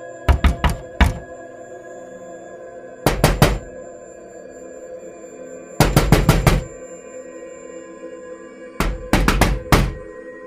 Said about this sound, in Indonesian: Lalu tiba-tiba, tok, tok, tok. Ada yang mengetuk pintu kamarku. Bapak itu mengetuk pintu kamar.